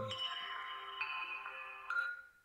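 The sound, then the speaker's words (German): A mobile phone ringtone from a phone left switched on during a live recording plays alone: a few sustained electronic tones stepping from note to note in a short melody, clear, with no talking over it. “Ich habe mein Handy nicht abgestellt.”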